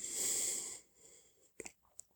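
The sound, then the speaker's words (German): A long breathy yawn lasting under a second, fairly soft, followed by a brief hush and a few small mouth clicks and smacks. “Ich muss gähnen.”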